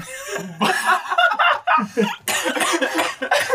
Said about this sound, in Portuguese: Dá pra ver pela tosse.